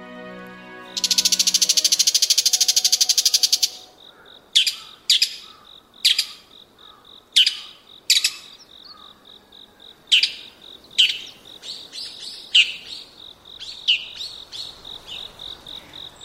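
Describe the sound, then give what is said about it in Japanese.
A bull-headed shrike, come down to a mountain village in autumn, gives loud, harsh, high-pitched territorial calls: a long rasping burst, then a series of sharp shrieks at irregular intervals, over a steady background of pulsing insect trills. “モズです標高の高いところで夏を過ごしたモズは秋里へ降りてくると高鳴きと呼ばれる鋭い声で縄張りを宣言します”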